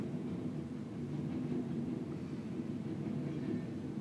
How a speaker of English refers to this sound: The train is coming by. I know. I'm like, honestly, sounds of the city. Goodbye, train.